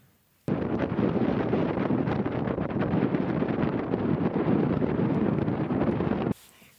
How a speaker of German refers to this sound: Genau, also ihr habt vielleicht ähm, auch nichts verstanden. Wie Sie hören, hören Sie nichts. Oder sehr viel Wind hören sehr Sie. Sehr viel Wind.